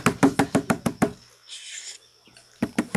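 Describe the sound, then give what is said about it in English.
Joseph of Arimathea knocks rapidly and sharply on a door, about seven firm raps in a quick burst, a short pause with faint rustling, then another brisk round of four knocks. Fairly loud, with no voices. “Open the door. It's Joseph. Let me in.”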